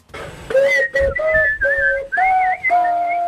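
A recorder flute played shakily: a loud, breathy run of about six notes with wobbling pitch and choppy breaks between them, sounding unpolished and off-key.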